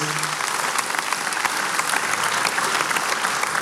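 An audience applauds steadily as three people are called onto the stage: a dense, even wash of many hands clapping for several seconds without pause, fairly loud, with no voices standing out.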